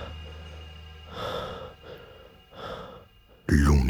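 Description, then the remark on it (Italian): A man's heavy, labored, breathless breathing, with three long ragged breaths rising and falling, before a louder voice cuts in at the very end. “Nei secondi che seguirono, l'unico rumore che si sentì nella stanza fu il suo respiro affannato.”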